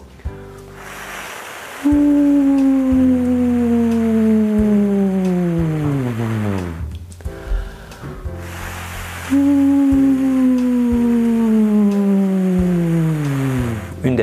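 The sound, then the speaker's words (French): A voice makes a breathy, wind-like whoosh, then slides down in a long descending siren-like glide as a vocal exercise; the pattern repeats twice, fairly loud, with soft low music underneath. “Très bien, pour terminer, nous allons faire maintenant des petites sirènes descendantes, toujours en démarrant par le bruit du vent.”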